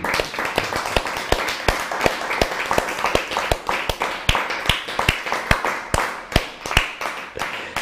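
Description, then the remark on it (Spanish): Wedding guests applaud a newly married couple steadily for several seconds, a dense run of sharp, bright handclaps at a fairly even, brisk pace, holding a constant loudness with no voices on top. “¿Por qué no otorgamos un fuerte aplauso?”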